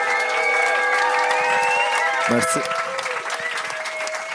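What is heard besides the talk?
audience applause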